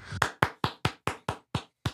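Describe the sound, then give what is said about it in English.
About eight or nine sharp, loud hand claps in a steady rhythm, recorded as a clap break for a show, each a crisp smack that fades quickly, with short gaps between; no talking. “It's like woo, we, we, we have to actually record the clapping. So here, clap break.”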